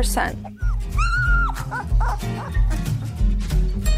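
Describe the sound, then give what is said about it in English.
Newborn puppies in a whelping box, in their first week of life, yip and whimper, with one drawn-out, high-pitched whine and several shorter squeaky cries, while a voice talks steadily over them. “From birth through the first week of life, these little darlings are totally dependent on their mother, who rarely leaves the whelping box.”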